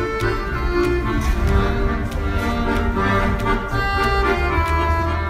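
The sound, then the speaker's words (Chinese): A street performer in New York plays the accordion, with full, sustained reedy chords and a steady melody running continuously at a strong, even volume, with no one speaking. “这是街头艺人的手风琴”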